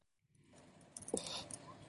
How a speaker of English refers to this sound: Let's see if I can type in the chat without getting kicked out. One second. Last time I got kicked out for typing in the chat.